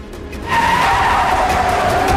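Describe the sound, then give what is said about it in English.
A car's tires screech loudly as it peels out of an alley at about 40 miles an hour, a sustained high squeal starting about half a second in over engine roar, with no talking. “making screeching noise, like trying to get away from them.”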